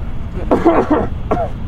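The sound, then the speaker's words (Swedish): Muffled coughing into a sweater: a rough, voiced cluster of several hacks followed shortly by one shorter cough, moderately loud over a low background hum. “Ja. hostar ut den här dagen.”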